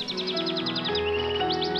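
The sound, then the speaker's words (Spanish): A baby bird chick that fell from its nest peeps in a quick run of high, thin chirps, pauses, then gives three more, all over a steady musical background with no talking. “Yo traje este pichón de pajarito que se cayó del nido.”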